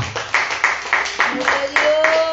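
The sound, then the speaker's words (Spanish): Hands clap for Jesus Christ during a Christian worship service, in a steady, even rhythm, about three sharp claps per second, fairly loud, with voices and a sustained tone carrying on underneath. “Dele palmas a Jesucristo, hermano.”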